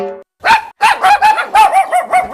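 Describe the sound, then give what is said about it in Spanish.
A dog barks in a rapid series of about seven sharp barks, loud and insistent, following a brief harmonic tone at the start. “Espera, que te lo traduzco. Tu perro te dice que quiere Lenda”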